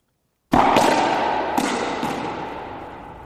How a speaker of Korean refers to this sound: 이 강렬한 소리는 네 스쿼시 치는 소리입니다. 땀 쭉 나죠.